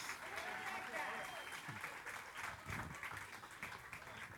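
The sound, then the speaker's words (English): A church crowd applauds the winners of a contest steadily, dense overlapping clapping for several seconds, with some scattered voices and cheers mixed into the sustained ovation. “Give them all a big round of applause.”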